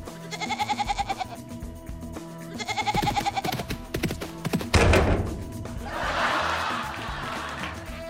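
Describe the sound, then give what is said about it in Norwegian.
A fainting goat, a breed originally from Tennessee that stiffens and falls over when frightened, bleats loudly twice in wavering cries, followed by a heavy thud and a stretch of rustling, scuffling noise. No one speaks. “Det finnes en rase geiter som faller om når de blir skremt.”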